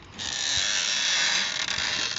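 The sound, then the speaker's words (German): A chair being bent backwards by someone sitting in it, its mechanism giving a steady, raspy mechanical creak that holds for about two seconds with fairly even loudness and no voices. “Das war der Stuhl, in den ich mich gesetzt habe. Ich habe ihn so nach hinten gebogen, genau.”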